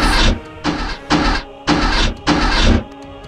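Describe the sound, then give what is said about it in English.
Solar drills, activated to drill into the sun, starting up in five loud, whirring mechanical bursts, each roughly half a second long with brief gaps between, over a low steady hum; no one speaks. “We're going to drill into the sun! Activate the solar drills!”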